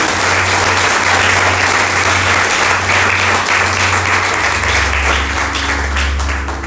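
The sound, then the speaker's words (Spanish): An audience bursts into loud, sustained applause for God during an afternoon service, a dense wash of many hands clapping at once for several seconds, with a low steady hum underneath and no voices speaking. “¿Cuántos pueden aplaudirle fuerte a nuestro Dios en esta tarde?”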